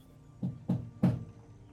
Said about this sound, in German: Also ihr könnt an der Tür anklopfen, die verschlossen ist. Mach ich. Poch, poch, poch.